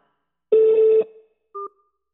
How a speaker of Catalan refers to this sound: To consent to the monitoring or recording of this call, please press 1 after the tone.